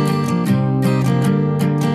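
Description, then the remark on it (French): Guitar chords strummed in a steady rhythm as the intro of a song, about one strum every half second with the chord shifting partway through, using a D-position chord with a G bass note, played fairly loud with no voices. “Ça fait comme ça, c'est l'intro.”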